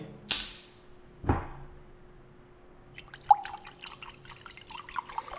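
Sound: water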